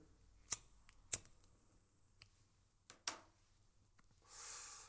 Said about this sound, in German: Ja, da ich immer noch rauche oder E-Dampfe, Feuerzeug, Zigaretten oder E-Dampfer.